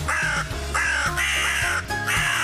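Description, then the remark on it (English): A crow call played on Racing HQ for "The Early Crow" gives about four harsh, raspy, loud calls in quick succession over a steady background hum, with no talking. “Um, but what we do have to do, mate, if you've got it ready, is crow on Racing HQ.”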